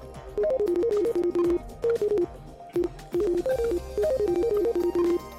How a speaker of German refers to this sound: Ich glaube, mein Schwein pfeift. Nein, es denkt. So klingt es, wenn ein Schweinegehirn arbeitet. Sagen jedenfalls die Entwickler, die der Unternehmer Elon Musk aufs Gedankenlesen angesetzt hat.